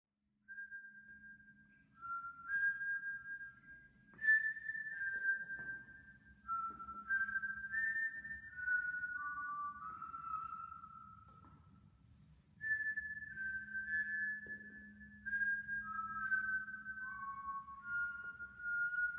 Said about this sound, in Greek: Το σφύριγμα έχει την ίδια μελωδία κάθε βράδυ